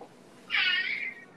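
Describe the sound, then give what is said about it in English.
A single clear cat meow, rising sharply then trailing off over about a second, with no talking around it. “Like, if you, oh, show you my cat.”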